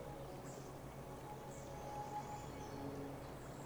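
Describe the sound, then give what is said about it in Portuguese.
Soft outdoor ambience with faint, high bird chirps recurring about once a second over a steady low hum, quiet throughout. “Sente a brisa, a natureza, a água, os pássaros.”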